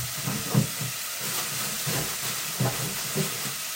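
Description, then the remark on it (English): Hamburger meat sizzles in a frying pan with a steady crackling hiss, punctuated by a few soft low knocks. “You can hear it uh, cooking away there.”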